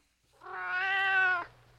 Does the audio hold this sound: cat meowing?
yes